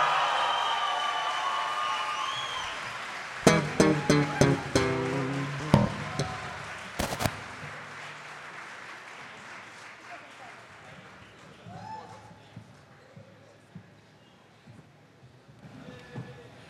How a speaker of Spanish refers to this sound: Denle un maldito aplauso como se merece